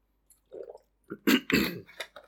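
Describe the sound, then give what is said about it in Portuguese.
Someone takes a sip of water, with a few quick wet gulps and swallows followed by a short breathy exhale, no talking. “Então, já, vou ter que beber um gol de água que a minha voz já está a ficar mais para rouca.”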